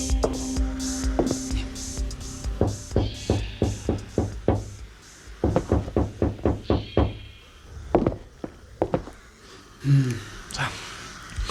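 Several bursts of rapid, sharp knocking on the glazed front door of a villa, knocked from its veranda on a sunny morning, fairly loud, with short pauses between the rounds of raps.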